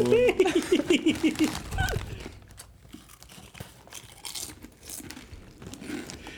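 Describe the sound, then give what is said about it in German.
A burst of laughter gives way to crinkling and crunching as a bag of chips is opened and chips are chewed right next to the microphone, with irregular crisp crackles that stay fairly loud until the end. “Ja, beste, neben den Mikrofon Chips wieder aufmachen.”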